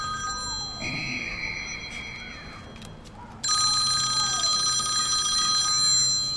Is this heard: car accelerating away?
no